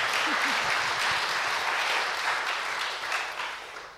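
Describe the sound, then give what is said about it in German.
Sustained audience applause welcoming a guest onto the stage, a dense, steady wash of many hands clapping that stays strong throughout and eases slightly toward the end, with a faint voice briefly audible early on. “Ein herzlicher Applaus, ein Willkommen für dich.”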